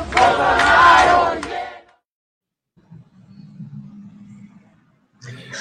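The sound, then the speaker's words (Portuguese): A loud crowd of student protesters at the University of São Paulo Faculty of Medicine in Brazil shouts a slogan in unison during a visit by the health minister, then falls silent. A low, muffled rumble follows before the voices surge up again at the end. “Ele foi recebido com protestos estudantis ao visitar a Faculdade de Medicina da USP.”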